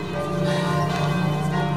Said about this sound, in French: Qu'est-ce que c'est que ces cloches